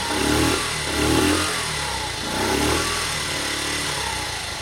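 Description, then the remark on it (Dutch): A moped engine is started and runs steadily, its pitch swelling and dipping in a few rev surges over a continuous mechanical drone, with no talking. “Moet ik eerst proberen te starten? Dat zal wel lukken.”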